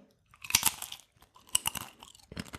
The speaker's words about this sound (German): Weil ich nebenbei esse und ich die ganze Zeit ins Mikrofon kauen möchte.